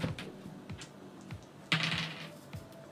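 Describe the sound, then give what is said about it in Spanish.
Two dice are rolled for a fight action in a game, landing on double three; they clatter and tumble across a hard surface, a quick series of sharp clicking impacts with a brief louder rattle partway through, then settling. “Ya, tengo dos dados en pelear. Ya, entonces tiráis dos dados.”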